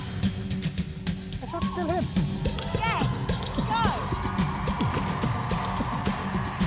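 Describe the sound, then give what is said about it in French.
A beatboxer performs on a TV talent show, vocally imitating musical instruments, laying steady, punchy bass thumps under sliding, whistle-like pitched sounds in a continuous, fairly loud rhythmic performance. “Il imite les instruments.”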